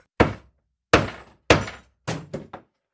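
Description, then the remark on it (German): Six sharp hammer blows flatten the ends of a paper clip on a wooden board laid on a desk, loud, with a few evenly spaced strikes followed by a quicker cluster of three. No one speaks. “man kann Büroklammern Enden mit einem Hammer platt schlagen”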